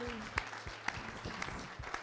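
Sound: audience clapping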